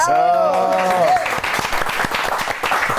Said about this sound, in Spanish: Muchísimas gracias. Gracias. Gracias, un aplauso,